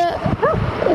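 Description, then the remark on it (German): A dog barks in a few short, sharp, loud bursts, with some low rumbling noise in the background and no talking. “sorry für den Hund, kann ich nichts dafür.”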